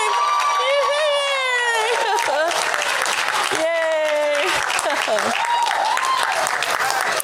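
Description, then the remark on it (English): A crowd bursts into loud, sustained applause mixed with whoops and high-pitched cheering yells as a new life member is announced at a gathering, the clapping forming a dense continuous wash for several seconds. “The new life member's name, and I'm going to say, first of all, who gave it to him before we all scream and yell so you can hear it.”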